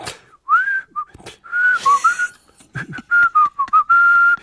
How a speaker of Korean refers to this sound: 그렇게 저는 휘파람을 부리며 무심히 걸어가려고 애를 쓰는데.